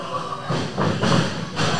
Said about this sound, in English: And a pair of body splashes from Gorgeous Morgan Taylor. 300 pounds right into the chest and face of Connor McKay and Winston Bentley III.